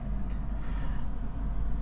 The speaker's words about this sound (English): Also, uh, sorry for any cars since uh, so we'll say there's a lot more cars out than it usually is.